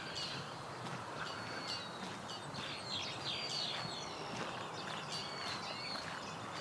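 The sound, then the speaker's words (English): Canada geese call in a string of honks, repeating irregularly across the whole stretch above a steady wash of outdoor background noise. “There goes some Canada geese.”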